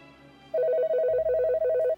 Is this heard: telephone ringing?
yes